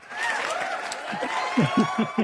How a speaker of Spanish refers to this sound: ¿Le aplaudimos o lo mandamos más? Aplaudido.